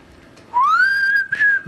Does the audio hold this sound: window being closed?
no